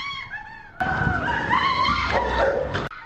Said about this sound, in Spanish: Se escucharon los gritos desesperados de la madre cuando el perro se le abalanzó.